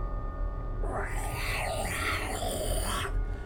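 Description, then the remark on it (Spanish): A person imitates the cry of a badly injured dog that had been beaten with bats: one strained, wavering, loud howl lasting a couple of seconds, its pitch bending up and down before cutting off. “Ah, güey, si fue un perro estaba más malherido que la. O sea, ese perro lo habían agarrado a batazos, güey.”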